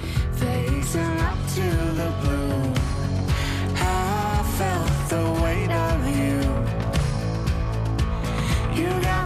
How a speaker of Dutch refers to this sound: Het is een nieuwe versie geworden van hun … en het klinkt zo.